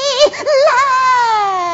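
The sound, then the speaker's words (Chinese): A newborn baby, two and a half days old and motherless, cries loudly and alone, a few quick wavering sobs breaking into one long, shrill wail that slowly slides downward in pitch. “眼见婴儿哭得惨进我心”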